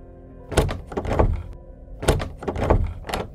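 A locked house door is rattled and jolted by someone trying to get out of the house, in two bursts of repeated thumping shakes, fairly loud, with a short pause between the bursts.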